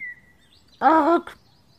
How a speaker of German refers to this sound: Und du hältst den Keks in die Luft und äh, da kommt plötzlich ein Papagei angeflogen.